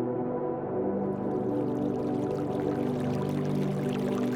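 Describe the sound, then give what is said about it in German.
A babbling brook in a tropical rainforest rushes and burbles steadily and close by, its watery hiss swelling after the first second and continuing without a break, over a soft, sustained low hum. “In der Nähe hörst du das Rauschen eines Baches und mit Freude denkst du an das kühle Wasser, das dich erwartet.”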